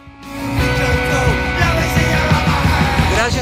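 Loud, driving punk rock with distorted guitars, pounding drums and shouted vocals, kicking in abruptly after a brief quiet start and staying dense and energetic throughout.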